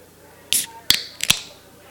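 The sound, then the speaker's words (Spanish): A beer is opened: a few sharp metallic clicks and pops, each with a brief airy hiss, spaced over about a second against a quiet background. “me trajo otra cerveza chingada, el, bendito refil. Miren, escuchen, escuchen.”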